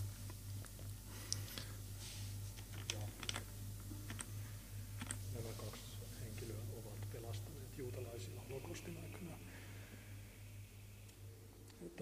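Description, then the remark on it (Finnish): Keyboard typing and mouse clicks rattle in quick irregular bursts over a steady low hum, as someone searches on a computer for a mention of Yad Vashem, with a voice talking quietly underneath throughout. “Mä, miten mä löydän kolmella klikkauksella?”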